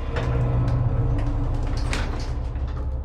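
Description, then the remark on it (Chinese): An apartment door in a new building is opened by someone entering, with a steady low rumble and rattling, mechanical texture, a few sharp clicks and scrapes standing out over about three seconds. No voices. “阿志打开门进入公寓之后”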